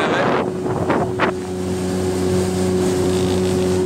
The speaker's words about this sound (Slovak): Vezeme sa na člne do Zemplínskej